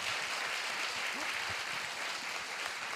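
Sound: applause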